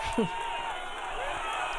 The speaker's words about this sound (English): the crowd yells, We love you, I think.